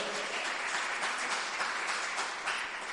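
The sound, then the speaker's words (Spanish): A crowd at a sermon applauds a friend of the preacher, a dense wash of many hands clapping at once, sustained and fairly loud throughout with no voices standing out. “eh, un fuerte aplauso para”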